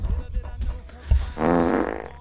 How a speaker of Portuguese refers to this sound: Ah, tu peidou no microfone agora. Ah, né? desculpa.